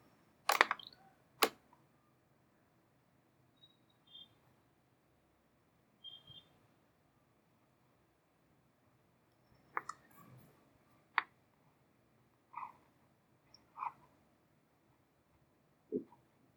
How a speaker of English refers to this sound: I wonder if you'll be able to hear my pencils or not.